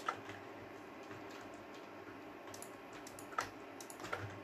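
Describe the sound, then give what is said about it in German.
Soft, quick taps of typing on a computer keyboard with a few sharper mouse clicks mixed in, steady but fairly quiet, with no voices. “Auch meine Tastatur und meine Maus, das ist alles sehr laut eingestellt.”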